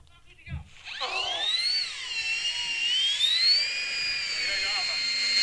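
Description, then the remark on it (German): A model aircraft engine's shrill, high-pitched whine starts abruptly and holds steady for several seconds, its pitch sliding up and down like a dentist's drill as the throttle changes. “oder Modellflugzeuge, dann findet man das.”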